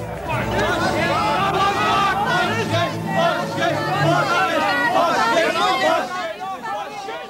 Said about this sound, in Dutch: Dit kwam uit eh, andere tijden, ja, en eh, wat je hoorde was een eh, grote demonstratie op het Binnenhof van, eh, van mensen die, die protesteerden tegen de komst van Janmaat in, in de Tweede Kamer.